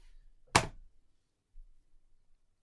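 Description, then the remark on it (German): A single sharp, loud thud of a door shutting as someone leaves the room, followed by a brief low rumble and near silence. “Hat man die Tür gehört? Ich wollte aus dem Raum.”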